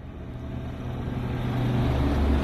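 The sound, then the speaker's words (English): A tour bus engine drones steadily from the inside, low and rumbling, growing slightly louder as the bus picks up speed along the road near Pripyat and the Red Forest in the exclusion zone. No one speaks. “as you remember we always make a short short stop uh, our speed of our bus is a little bit slowly it's near the red forest to the right side”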